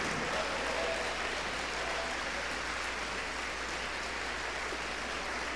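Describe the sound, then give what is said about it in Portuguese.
A church audience applauds the name of Jesus as people come forward, a dense, continuous wash of clapping from many hands at an even level for several seconds, with no voices standing out. “Vamos aplaudir ao nome do Senhor Jesus por cada vida que está vindo aqui para frente.”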